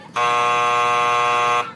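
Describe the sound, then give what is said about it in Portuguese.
An electric doorbell rings at the opening party of a centre, signalling the start of a fireworks show: one continuous, steady buzz lasting about a second and a half, loud and harsh with a bright, even tone, then stops abruptly. No one speaks. “de repente o som de uma campainha desperta a atenção do vovô Beto”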